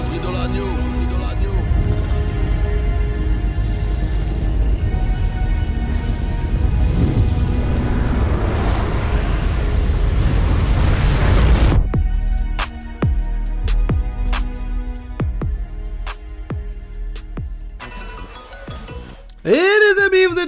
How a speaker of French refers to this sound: Et comme vous l'avez entendu, du coup, il y a une petite alerte but parce qu'on a eu un nouveau but entre Aston.